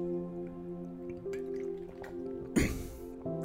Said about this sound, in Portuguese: Vou beber um água e vou repetir.